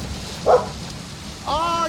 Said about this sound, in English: Is there someone out there? Is someone trapped out there in this storm?